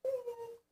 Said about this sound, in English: excuse my dog.